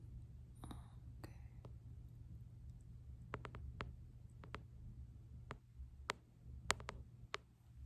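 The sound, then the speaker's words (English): Loose screws being tightened: sparse, irregular little clicks and taps from the tool, quiet and crisp, spread across several seconds over a low, steady background hum. “So I'm just going to fix the screws that you have that are loose.”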